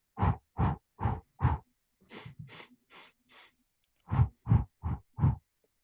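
As a simple breathing exercise, four quick, forceful sniffs through the nose, then a softer, drawn-out exhale in several puffs, followed by four more sharp sniffs. No talking.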